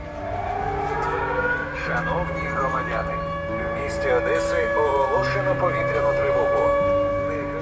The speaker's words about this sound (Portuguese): Assim que lá cheguei, soou a sirene. Os músicos de rua competiam com ela. Foi ali que ouvi pela primeira vez uma sirene com uma voz off por cima.